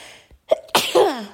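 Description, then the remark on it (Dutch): A single loud sneeze: a quick sharp intake of breath, then an explosive burst trailing into a brief voiced, falling sound at the end. “Ik moet niezen.”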